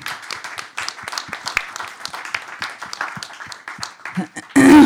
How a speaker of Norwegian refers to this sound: Vi gir han også en applaus, tenker jeg.